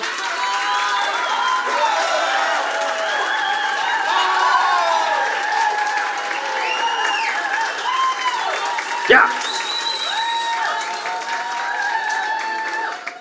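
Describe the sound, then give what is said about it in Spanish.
An audience at a live interview claps steadily for about thirteen seconds at the host's invitation, the dense applause mixed with cheering and whooping voices, holding an even loudness throughout with one sharp burst partway through. “Permitidos los aplausos, permitidas, es, este, es más, echen de una vez un aplausito.”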